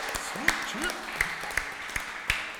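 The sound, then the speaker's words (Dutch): Sparse, scattered clapping from an audience after a performance at a cultural event in the library in Dortjard, about six sharp claps at an uneven pace, with brief rising vocal sounds early on and a low murmur underneath. “dames en heren. Applaus.”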